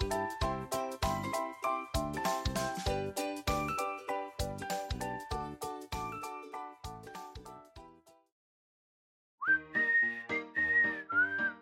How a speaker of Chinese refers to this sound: 在一个阳光柔柔、白云悠悠的舒服上午，老鼠阿斗吹着口哨，悠闲地在黑森林里走啊走。